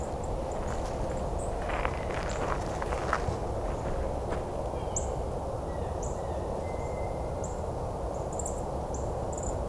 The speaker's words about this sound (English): Oh, there's Dark Eye Junco. Little rattly call. There's a couple of them in here.